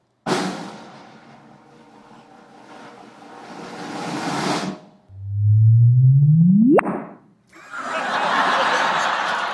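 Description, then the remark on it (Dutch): A loud synthetic chirp, a computer rendering of gravitational waves from two black holes colliding, sweeps from a low hum up to a sharp high pitch in about two seconds, ending abruptly. Broad noisy sounds and what seems like laughter come before and after. “This is the sound of two black holes colliding. This is actually this is actually a computer rendering the, of the gravitational waves into right. sound.”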